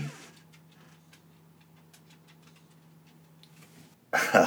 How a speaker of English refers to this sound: Did you hear those little chihuahua footsteps? Uh, my dog just busted into the room.